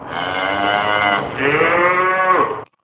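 Two long, loud bovine moos in close succession, the second rising slightly in pitch before cutting off abruptly, with no speech present.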